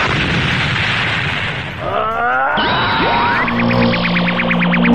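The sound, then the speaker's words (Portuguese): A loud, sustained explosion sound effect with dense roaring noise, giving way to swooping synthetic tones and a rapid pulsing electronic whine. No one speaks. “Seguido de uma grande explosão de Cosmo, Caos pula para trás”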